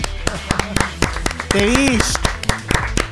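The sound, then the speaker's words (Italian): Brisk clapping from a few hands, sharp irregular claps running for about three seconds, with a brief voiced cheer rising and falling in the middle. “Perché in anni di Radio Line una sigla così demenziale non c'è mai stata, quindi un applauso a colui colui che l'ha fatta.”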